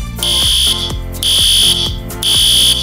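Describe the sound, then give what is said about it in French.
A loud, shrill electronic alarm sounds in three repeating bursts, each piercing tone holding for about half a second over a steady lower pulsing hum. No one speaks. “Bon, ça ressemble à une alarme, là.”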